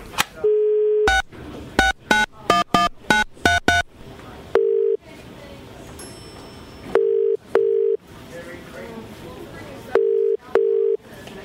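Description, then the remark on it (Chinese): A steady telephone dial tone gives way to a quick run of keypad beeps, then paired ringing tones repeat at even intervals over faint background noise. “哦，没关系，让我打个电话给她。”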